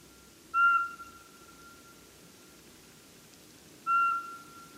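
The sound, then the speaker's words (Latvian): Two clear, steady whistled notes from a pygmy owl, each short and mid-pitched, spaced a few seconds apart over a quiet, faintly hissing background with no talking. “Varbūt silpo apodziņš.”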